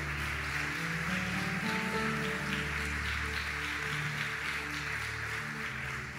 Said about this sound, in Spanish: Vamos a darle fuerte el aplauso al Rey.